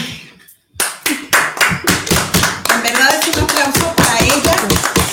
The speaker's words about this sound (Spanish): Un aplauso para ti, que fuiste tan asertiva en este poema que es, que es fuerte porque es, es interesante conocer el por qué lo escribiste.